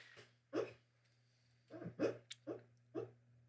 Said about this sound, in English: That's awesome. it's okay, pal. That was cool. I like when we get dogs like making noise.